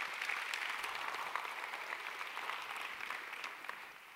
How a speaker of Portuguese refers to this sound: Quem pode dar um aplauso bem forte ao Senhor?